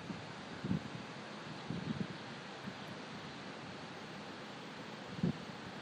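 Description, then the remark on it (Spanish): Steady ambience from the cooling tower of the Nogent-sur-Seine nuclear power plant, releasing a huge white plume of water vapour on a 31 °C day: a continuous hissing roar like rushing water or wind, with a few brief low thumps and no voices. “El sonido de la central nuclear de Nogent sur Seine.”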